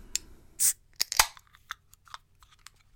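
The ring pull of a can of 5.9 percent stout is worked open: sharp metallic clicks and snaps, a short burst of hiss as it gives, then a few lighter ticks trailing off.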